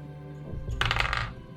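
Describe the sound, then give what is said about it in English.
A short burst of clattering as dice are rolled for a check in a tabletop game, small hard objects tumbling and rattling across a surface, lasting under a second, moderately loud with no talking. “Okay, wait, that's the wrong dice. I can use the right dice for this.”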